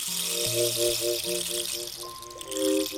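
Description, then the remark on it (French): A rain stick being turned over in a cascade near a person's ear, its beads pouring in a steady patter like falling water, with soft sustained musical tones underneath and no voices. “Sa mère a fermé les yeux et Azalrus a renversé le bâton de pluie en cascade près de son oreille.”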